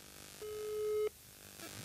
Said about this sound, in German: Ich rufe ihn jetzt mal ganz kurz an. Ja, ruf ihn mal an. Mal gucken, ob er sich meldet. Aber du hältst das Handy dann auch ans Mikrofon. Ja, du hörst piep, piep, piep mhm. schon, oder?